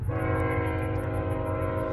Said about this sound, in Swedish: Hör, hörde ni det eller? De här tågvisslerna, det är helt vansinnigt. De här tågen som är här. Jag funderar på om det inte är samma tåg som bara går fram och tillbaka. Men alltså, jag är ju öknen, det är platt.